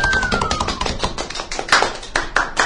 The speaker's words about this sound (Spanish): Les pido un pequeño aplauso para nuestro querido Sergio Sandoval.